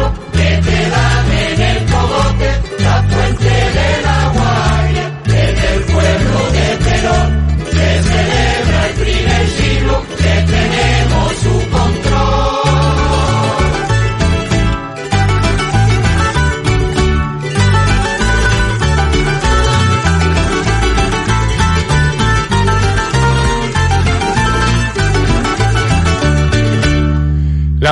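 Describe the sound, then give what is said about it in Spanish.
A lively polka plays loud and continuous on Radio Las Palmas, with a bouncy, regular beat, a steady bass pulse and bright melodic instruments filling out the tune from start to finish. “polca que hemos escuchado de la mano de estos artistas para todos ustedes en la sintonía de Radio Las Palmas”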